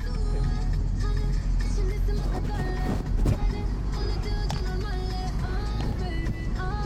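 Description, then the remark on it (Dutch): A steady engine rumble fills the inside of a moving taxi on the way to Pristina while music plays loudly over it, with melodic tones and a vocal-like line running through the whole ride. “Zit er nu een taxi? naar Pristina. En allemaal muziek.”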